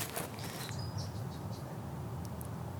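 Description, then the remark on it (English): Faint, high chirps from birds, a few short calls over a steady low background hum, with no one talking. “gonna think that we added Whoa. in the birds.”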